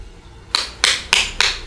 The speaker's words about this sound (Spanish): No, no estoy tabaqueando una caja de cigarros, ¿eh? estoy aplaudiendo. Estoy... Estoy feliz estoy aplaudiendo nuestra participación en Vaselina. Aplausos.